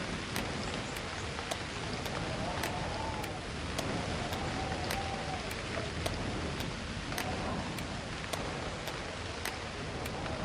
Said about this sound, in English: Then as quickly as they've come, raindrops slowly stop their drum. Drum, drum, drum.